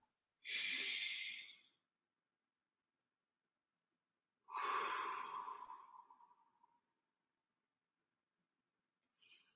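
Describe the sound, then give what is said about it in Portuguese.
A deep breath drawn in, a pause, then a long, slow exhale, clearly audible with no talking, followed by the start of another inhale at the end. “O que, que uma respiração profunda, quando você para, como agora, parei, vou fazer uma respiração profunda.”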